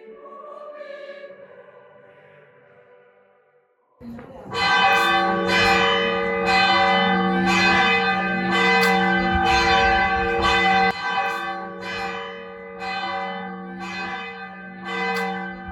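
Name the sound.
church bells ringing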